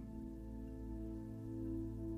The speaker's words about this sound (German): Du hörst das tosende Wasser, das ins Meer hineinfließt, aber nur ganz leise, denn der Wasserfall ist schon ein wenig entfernt von dir.